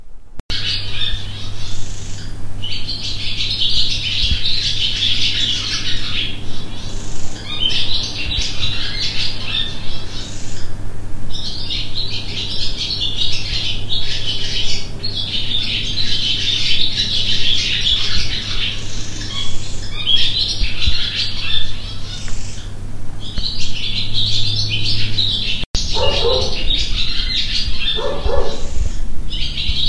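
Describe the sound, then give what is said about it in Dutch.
Swallows chirp and twitter almost without pause in a barn, several birds overlapping in busy bursts above a steady low hum, with no one talking. “Dat zijn de dus zwaluwen in onze schuur.”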